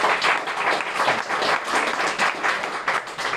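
Sustained applause from a crowd, a dense wash of many hands clapping at once, steady and fairly loud for several seconds with no voices over it.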